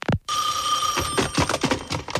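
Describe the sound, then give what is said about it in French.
A telephone at the Choc FM radio station rings with a bright, steady electronic trill held for about a second, starting abruptly after a brief pause, then fading into a jumble of overlapping sounds and faint background noise. “Hey, là, le téléphone deux fois, c'est trop.”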